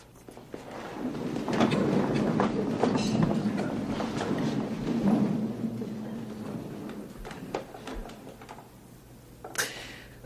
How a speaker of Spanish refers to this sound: Hemos oído ese ruido porque todos se levantan de sus sillas, se ponen en pie en homenaje a esta mujer.